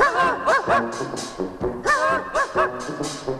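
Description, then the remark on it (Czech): The theme jingle of the Czech Večerníček cartoon about Mikeš the cat (Kocour Mikeš): short and bouncy in brass-band style, with punchy rhythmic notes and sliding tones played fairly loud, with no talking over it. “Zatímco znělka z večerníčku o Kocourovi Mikešovi nám dokazuje, že tací čeští psi zvládnou i dechovku”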